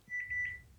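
An AVM cordless telephone gives a short electronic ringing beep, a steady high-pitched tone lasting about half a second with a slight warble, fairly clear against a quiet background.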